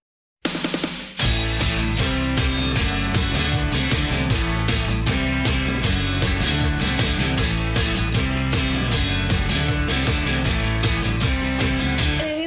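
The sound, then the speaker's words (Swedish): A song with sung vocals plays loud, a full band driving along over a steady, punchy drum beat after a brief sharp opening burst. “jag tänkte vi skulle börja med en av deras eh, med lite mer kända låtar”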